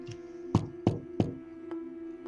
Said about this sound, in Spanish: oyóse de súbito un leve golpe, como si suavemente tocaran